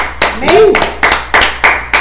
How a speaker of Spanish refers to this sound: Eh, un fuerte aplauso a todas, a todas las naciones. estamos de fiesta.